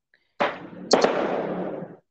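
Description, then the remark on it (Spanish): A sudden loud burst outdoors, then two sharp cracking pops in quick succession, trailing into a hissing, crackling rumble that fades after a second or so, like firecrackers going off. “Tranquilos, tranquilos, tranquilos, ya no son cohetes, no Es la CIA, güey, es la CIA.”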